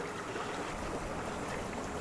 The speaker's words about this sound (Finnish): Tässä on ihana, kun tässä on muuten tämä tämmöinen ihan pienen pieni puro tässä, mikä Joo. menee varmaan just tuonne Immeljärveen.